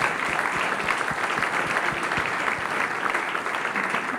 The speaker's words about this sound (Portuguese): Nos deram um neto, glória a Deus, pode aplaudir o Senhor, né?